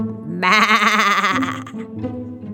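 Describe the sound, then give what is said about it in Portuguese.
A sheep (a ram) bleats loudly, one long quavering baa that trembles through its middle before trailing off into a lower, rougher tail. “E o carneiro fazia Bé!”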